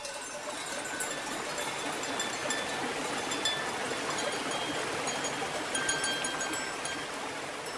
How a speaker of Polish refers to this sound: Potrzebna będzie scena do tych podziękowań, tym razem może niech będzie górska. No, owce z górami mi się kojarzą, nie wiem jak Wam. Tylko może jeszcze coś dodajmy, jakiś y, potok, taki nieduży